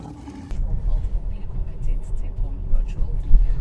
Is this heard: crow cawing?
no